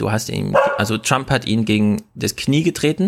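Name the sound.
dog barking in background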